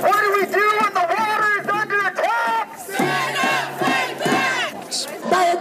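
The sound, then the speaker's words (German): Hundreds of protesters in the streets of Montreal chant in unison, loud, rhythmic shouted phrases repeating in two bursts with a brief dip between them, many voices blending into a steady, insistent protest chant. “Hundreds taking to the streets in Montreal with the clear message for world leaders.”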